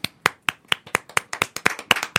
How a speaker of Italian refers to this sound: Vi applaudo anch'io, da solo. Tanto non si vede. Ah, sì, ma, ma si sente.